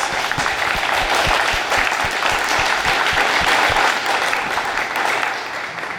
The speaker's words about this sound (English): So, can we give a round of applause to our legislators?